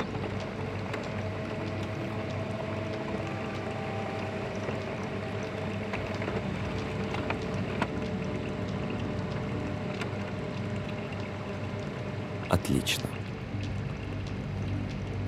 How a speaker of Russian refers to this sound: Профи подходит к принтеру, берет распечатанные документы, скрепляет их и кладет в папку.